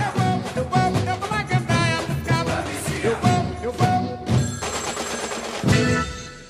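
An upbeat carnival song, a hit at the Salvador Carnival in the 1990s, plays loudly, with punchy percussion hits, bright brass-like tones and dense layered instruments driving a fast, steady rhythm throughout.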